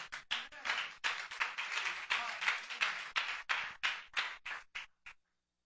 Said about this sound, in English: If you get my point, clap your hands.